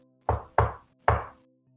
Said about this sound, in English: So as you're talking, your father knocks at the door.